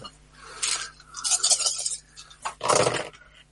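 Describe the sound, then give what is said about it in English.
Seven dice are rolled for a sneak roll, rattling and clattering across a hard surface in two bursts, bright clicking and tumbling, with a louder final tumble at the end and no voices. “Uh, so that is Ooh, seven dice.”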